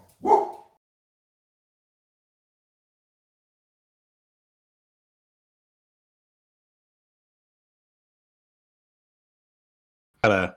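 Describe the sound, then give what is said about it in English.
A dog barks twice, a single loud bark at the start and another about ten seconds later, with silence in between and no voices. “Got a got a dog acting up.”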